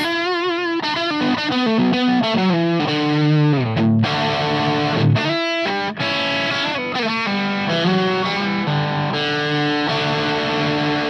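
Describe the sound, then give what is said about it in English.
An overdriven electric guitar plays through channel two of a T-Rex overdrive pedal, with the gain at about one to two o'clock and the boost engaged. It plays a run of sustained, gritty notes and chords, loud and thick with saturated harmonics, alone without any talking. “But this has also got the boost function yeah. on as well.”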